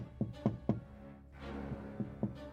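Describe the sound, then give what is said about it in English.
Two sets of three quick, hollow knocks from a corridor, steady and evenly spaced, separated by a brief soft whooshing swell; moderately loud, with no talking. “This time, the tapping came from the corridor, and they saw the same shadowy figure.”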